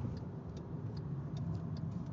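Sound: car driving in traffic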